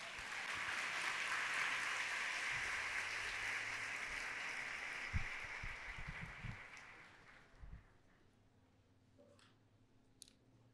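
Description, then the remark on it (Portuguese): A crowd at a religious retreat applauds Jesus in a dense, sustained wave of applause for several seconds, then it thins out and fades, leaving a few scattered claps and faint background noise. “Aplauda Jesus.”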